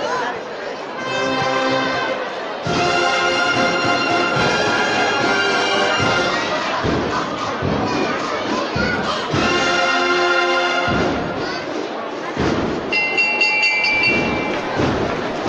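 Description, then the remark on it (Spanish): A bell on a Holy Week procession float in Jaén, Spain, rings out repeatedly over the murmur of a large outdoor crowd, its metallic tones swelling and fading in uneven bursts amid shuffling and thumping noises. “Bueno, pues eh, con ese sonido de campana del trono del descendido, regresamos a esta carrera oficial.”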